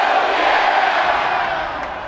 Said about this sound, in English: If you knew the Chiefs were going to win the division, let me hear you say hell yeah. Hell yeah. All right now. If you knew the Chiefs were going to get the number one seed, let me hear you say hell yeah.